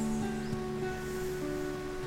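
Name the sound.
outdoor ambience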